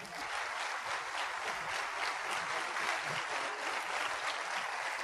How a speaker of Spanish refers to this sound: Gracias, gracias a todos los que están aquí enfrente y por favor ayúdenme a darles un fuertísimo aplauso.